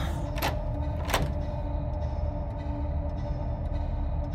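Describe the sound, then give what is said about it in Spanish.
Two sharp rattling clunks from a locked door in an old library that won't open, as if the handle is tried against the lock, over a steady low background hum. “Esta puerta está cerrada.”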